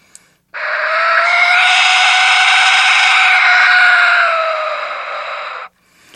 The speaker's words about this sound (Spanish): Y aquí tengo dos instrumentos, que es el silbato de viento, que llaman el silbato de la muerte, pero este silbato es también muy, muy particular.